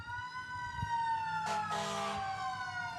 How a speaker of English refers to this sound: It happens a little, little later tonight than normal, folks. But there are the sirens. It made it before the hour.